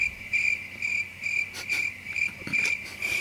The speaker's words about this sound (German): Ey, so lange drauf gewartet, die Grillen benutzen zu können.